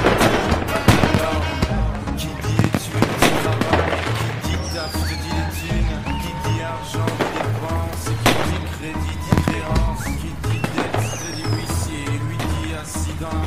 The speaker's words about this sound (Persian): زیر یه پل آتیش بازیه